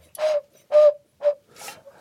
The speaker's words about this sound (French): C'est voilà, donc c'est l'eau qui est dans la carafe qui pousse l'air dans voilà, dans le sifflet.